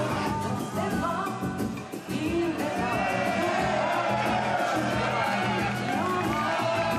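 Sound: crowd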